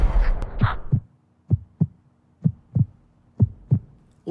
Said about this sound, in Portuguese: O pulso ainda pulsa.